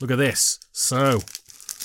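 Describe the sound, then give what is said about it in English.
A man speaks briefly, then light, crackly cellophane crinkling follows as scattered sharp ticks and rustles, moderately quiet, as the cellophane wrapping of a Jenga tumbling block tower game is handled and torn open. “this is the sound of cellophane.”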